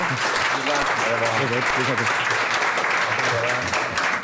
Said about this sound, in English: Applause, people.